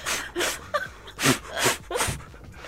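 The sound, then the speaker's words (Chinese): A voice imitates the breathing sound made while running, a kind of breath sound that does not carry to the neighbours: a series of about five quick, rhythmic breathy huffs and puffs, panting-like and fairly steady, with no other talk. “换气音是什么？”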